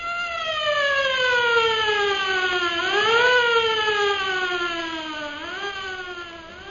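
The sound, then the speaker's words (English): An alarm siren wails steadily, its harmonic tone sliding slowly down, then sweeping back up twice in long loud rising-and-falling cycles, with no voices over it. “Cut the radio, Lin Fu, and sound the siren.”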